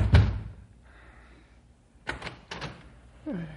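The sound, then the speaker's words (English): A door is opened in the middle of the night: a heavy thump, a quiet pause, then a couple of rattling clicks of a latch and handle, with a voice starting to speak right at the end. “Come on, come on, open the door.”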